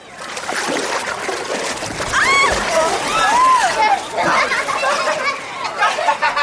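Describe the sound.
Water splashes loudly and sloshes around as two children squabbling on a duck boat fall into a swimming pool at the same time, with high excited children's voices squealing and calling over a busy, noisy pool.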